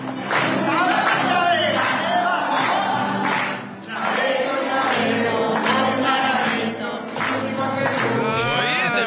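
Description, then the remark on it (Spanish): People in a church sing loudly together a religious version of a famous pop song with changed lyrics, also dancing; many voices blend into a steady melodic chant that holds strong and continuous throughout, with rising and falling phrases and no instruments standing out. “Las personas que estaban en la iglesia comenzaron a cantar y a bailar al escuchar la canción.”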